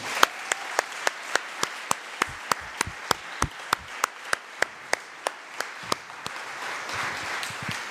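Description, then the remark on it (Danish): A crowd applauds steadily for several seconds at the end of a committee hearing, a dense wash of clapping with one sharp pair of hands beating out a quick, even rhythm on top. “Skal vi ikke give en kæmpe klapsalve?”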